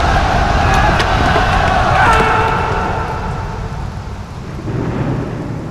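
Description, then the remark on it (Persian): A loud, dense roar of rushing floodwater with a stormy rumble beneath, unbroken, dipping briefly partway through before surging again, as the water surrounds people fleeing from it. “وای اینجا چه خبر شده نترسید سریتر سریتر آب دارد ما را احاطه می ای فرعون کبیر ای رب العالمین آب امر کنید نگهش دارید”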